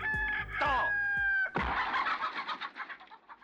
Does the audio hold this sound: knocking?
no